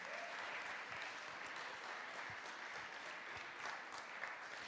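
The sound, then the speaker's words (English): An audience claps steadily in a sustained round of applause, dense overlapping hand claps holding an even loudness throughout with no voices rising above it. “Can you give Peter a round of applause?”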